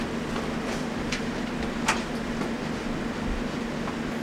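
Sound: train moving on rails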